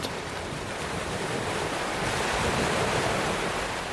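Steady ocean surf washes continuously onto a beach, a broad hissing roar of breaking waves with a slight swell toward the middle, heard alone without any voices.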